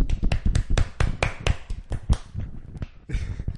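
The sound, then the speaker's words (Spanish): Applause made of a quick, uneven run of sharp hand claps, about a dozen crisp hits over a few seconds. The clapping is moderately loud and carries no voices. “Ah, mira, un aplauso. Un aplauso, un aplauso.”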